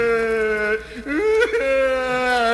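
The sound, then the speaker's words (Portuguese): A voice mimics desperate crying, a sustained whiny wail with wavering pitch that dips and rises midway, fairly loud, with no actual words spoken. “É, senão você começa o ano assim chorando, ó, desesperado.”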